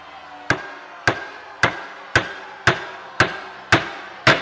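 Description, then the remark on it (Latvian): Eight sharp, ringing hammer blows drive nails at a steady, even pace as Jesus is nailed to the cross, each hit loud and metallic with a brief decaying ring and a low hum underneath. No one speaks. “Un tie viņu sita krustā.”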